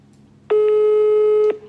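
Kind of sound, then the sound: signal or alarm, telephone ringback tone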